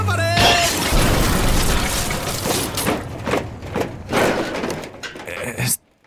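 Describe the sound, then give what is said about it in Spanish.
A loud car crash of a car rolling backwards whose driver cannot find the handbrake: a brief squeal gives way to several seconds of crunching impacts, shattering debris and rattling metal, which then cut off abruptly into silence. “Agarraos fuerte, que nos vamos a estrellar con tres.”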